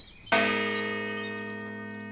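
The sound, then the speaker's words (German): A single heavy strike of a large church bell, two meters high and wide, standing in a garden, its deep, rich tone ringing out and lingering with a slow, gradual decay; no voices are heard. “dass die zwei Meter hohe und breite Glocke in den Garten seiner Schwester kam”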